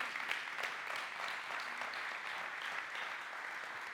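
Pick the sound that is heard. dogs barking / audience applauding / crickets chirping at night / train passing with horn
audience applauding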